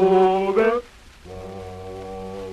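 Deep male voices sing together in Zulu in long sustained chords, a louder rising phrase that breaks off briefly, then a steady held chord that carries through to the end.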